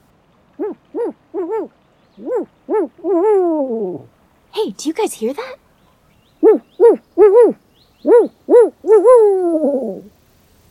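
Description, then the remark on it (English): A person in a forest mimics an owl with a quick run of short, swooping, loud hoots, breaks off for a brief spoken question, then resumes hooting and ends on a longer, drawn-out call, while looking for owls during the owl breeding season. “It kind of sounds like an owl, but I think it might be my friend”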